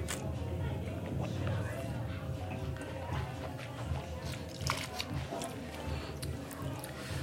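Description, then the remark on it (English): Wet mouth sounds of wine being sipped and swished over the tongue while tasting it, a continuous slurping, squishy churn with soft clicks lasting several seconds. “All right, let's give it a sip. It's got a little that lacticy thing that you get from uh, from malolactic. Let's throw it over the tongue.”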